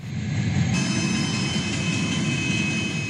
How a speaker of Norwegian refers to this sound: Dette er lyden av et russisk godstog som suser over en bro. De åpne vognene er fulle av tanks og mørkegrønne militære lastebiler.